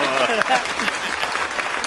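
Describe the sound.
Steady clapping from a group of people fills the whole moment, a dense crackle of many hands with some voices mixed in underneath.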